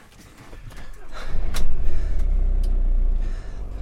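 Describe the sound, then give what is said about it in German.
A car engine rumbles low and steady, building as the vehicle pulls away and leaves the property, with a few brief knocks and clicks over the continuous motor noise. Jule Kerber has switched cars and is driving off. “14.33 Uhr, Jule Kerber wechselt den Wagen, verlässt das Grundstück.”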